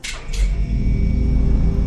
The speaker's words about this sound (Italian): Fermarsi, prego. Attendere l'apertura della porta successiva.